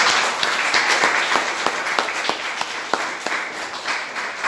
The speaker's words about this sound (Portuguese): A gente pode aplaudir o Senhor por isso ou não?